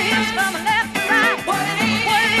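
A soul song plays loudly and continuously on a late-night radio music show, with a melodic lead vocal gliding over full band accompaniment and a steady groove throughout.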